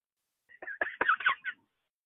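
Mini turkeys gobbling in a quick, rattling burst of warbling notes lasting about a second, moderately loud, with silence before and after and no talking.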